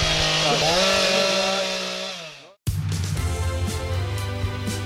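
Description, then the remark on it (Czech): Loud chainsaws roar at a woodcarvers' symposium in Jiříkov, one engine revving high and then bogging down as it slows, followed by a brief pause before another saw drones on steadily. “Takže zaburácení motorových pil z Jiříkova, ze sympozia řezbářů”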